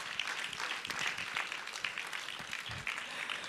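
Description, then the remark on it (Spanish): A crowd applauds steadily for the King of Kings and Lord of Lords, many hands clapping in a dense, sustained wash of noise with no pauses and no voices over it. “Den un aplauso al Rey de Reyes y Señor de Señores.”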